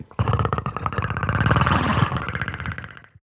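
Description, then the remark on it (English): The clicking call of an alien creature from a 1987 sci-fi movie: a loud, rapid rattling train of clicks over a guttural, growl-like rumble, running steadily for about three seconds before cutting off. “That was the Predator's clicking sound from the 1987 movie starring Arnold Schwarzenegger.”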